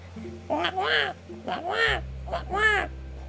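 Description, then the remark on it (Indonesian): A crow caws three times in quick succession, each call harsh and drawn out, over a low, steady background drone. “Ternyata si Gagak, Gagak sedang minum si si Gagak sedang minum air.”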